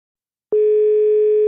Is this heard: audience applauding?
no